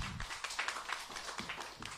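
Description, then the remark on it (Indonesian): An audience applauds Moto Video, a steady crackle of many overlapping claps at moderate-to-soft level, sustained without pause for the full two seconds with no voices on top. “tepuk tangan dong bagi untuk untuk moto video, terlebih dahulu”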